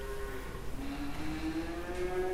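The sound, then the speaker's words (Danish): A cow moos in a long, low, drawn-out call that slowly rises in pitch, set against a steady background hum of a dairy cow barn on a farm. “Jeg gik ned i stallen for at spørge produktionslederen Anders om dagligdagen i stallen”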